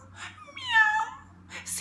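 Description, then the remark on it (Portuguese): A voice imitates a cat's meow, a drawn-out wavering call rising and falling in the middle, framed by short breathy sounds before and after, fairly clear. “Gritaram centenas de gatos, milhares de gatos, milhões e bilhões e trilhões de gatos.”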